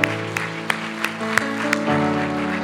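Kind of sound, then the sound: crowd, audience applauding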